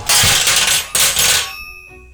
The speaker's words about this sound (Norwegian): Brettet med de skumle apparatene smeller i gulvet med et voldsomt leven.